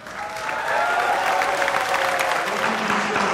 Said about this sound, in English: Let's get some applause because.